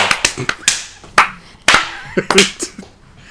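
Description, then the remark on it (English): Hands clap in an uneven burst of sharp, loud smacks, about eight claps spread irregularly over a few seconds, with faint voices murmuring underneath between them. “I was kind of clapping.”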